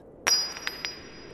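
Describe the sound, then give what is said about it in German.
A horseshoe, thrown in a high arc at a rodeo, strikes a metal target stake with a sharp metallic clink, leaving a thin high ring that lingers, followed by two softer clinks as it settles. No voices. “Das wirbelt quer durch die Luft und zack, bumm landet klirrend genau im Ziel.”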